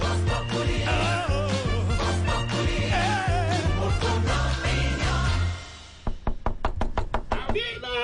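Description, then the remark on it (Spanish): After several seconds of dense, muffled voices and background noise, a rapid series of about ten sharp, loud bangs strikes against a door, quickly repeated. “Se pegó contra la puerta todo.”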